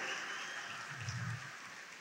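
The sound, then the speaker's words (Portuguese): A church audience applauding together to praise Jesus, a steady wash of many hands clapping that holds evenly for the full two seconds, with no one speaking over it. “Então expresse essa alegria e aplauda Jesus.”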